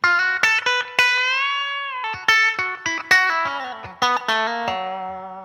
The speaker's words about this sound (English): if I move it to the back pickup, you get that real classic telly twang